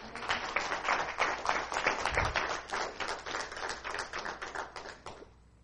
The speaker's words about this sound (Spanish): Denle un aplauso a Dios si usted lo cree.